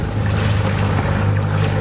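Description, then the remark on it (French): A river cruise boat moving steadily along a river at about 10 km/h, its engine droning in a low, constant hum beneath a wash of wind and water noise, loud throughout with no one speaking. “Donc là, on est à 2-3 mètres au-dessus de la rivière.”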